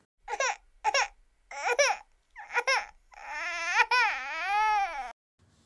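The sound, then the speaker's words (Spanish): A newborn baby being baptized by a priest cries in short, rising bursts, four quick wails, then breaks into a long, wavering, high-pitched cry that stretches on before stopping. Fairly loud, with no talking. “y un Pérez sacerdote a caballo, que bautizó un perecito recién nacido.”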